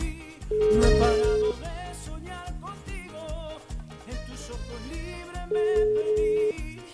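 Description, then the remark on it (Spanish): An outgoing phone call rings out with two steady one-second ringback tones about five seconds apart, heard over an upbeat music bed with no talking, placed live on air during a morning radio broadcast. “¿Lo dejarán atender el teléfono ahora que es papá o no?”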